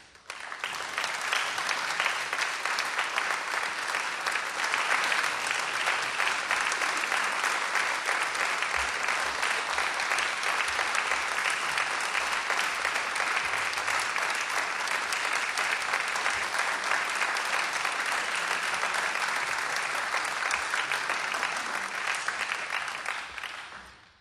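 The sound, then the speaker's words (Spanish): Sustained audience applause, a dense, steady wash of clapping hands lasting over twenty seconds at an even loudness before fading out at the end. No one speaks over it. The audience in a radio station's auditorium welcomes the Trio Ginastera before their live recital. “Y hoy los tenemos en vivo aquí en el auditorio de la radio, así que si les parece ya los recibimos con un aplauso.”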